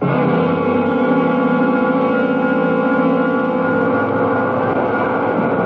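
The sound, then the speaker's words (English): A loud, steady wash of heavy engine rumble and droning mechanical hum fills a bus terminal, a dense transit-station ambience with no pauses and no voices. “why'd you want to meet back here in this bus terminal? It's smelly, it's noisy.”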